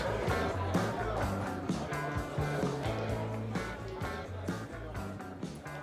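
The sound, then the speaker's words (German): Busy funfair ambience: a steady wash of crowd murmur and machinery with a looping, organ-like melody running through it, fairly loud and continuous for the whole stretch. “Ja, man hört im Hintergrund ein paar Geräusche. Es ist hier ein bisschen lauter.”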